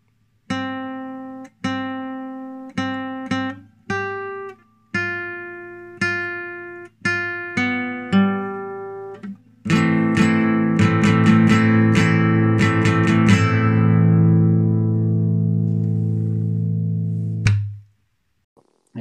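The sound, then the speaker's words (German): A short musical jingle played at a transition: a run of plucked, bright synth notes in a bouncy rhythm, then a loud sustained chord-heavy swell that rings for several seconds before cutting off. No voices. “Erstmal geiler Jingle, den du da eingespielt hast.”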